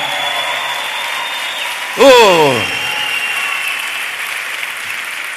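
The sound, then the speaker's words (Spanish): A crowd claps steadily throughout, a dense continuous wash of applause for the Lord, with a man's brief vocal exclamation cutting through near the middle. “Dale un aplauso al Señor.”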